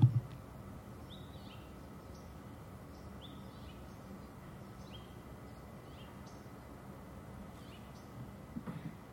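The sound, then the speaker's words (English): Wild parrots call repeatedly outside the window of a house in Eagle Rock as the sun goes down, short scattered squawks and chirps rising over a steady low rumble of background noise, with no one talking. “settled in to drink some rosé and chat as the sun went down, listening to wild parrots out the window.”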